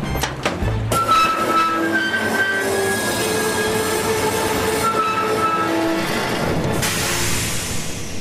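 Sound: train running on rails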